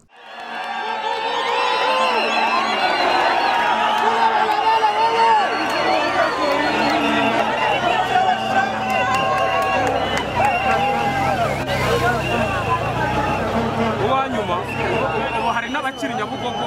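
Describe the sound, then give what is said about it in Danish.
A dense, roaring crowd cheers at a cycling race on the legendary wall in Kigali, a continuous wall of shouting and chatter with whistles and higher yells rising above the steady din for the whole stretch. “det er et øh, cykelløb på den legendariske mur i Kigali”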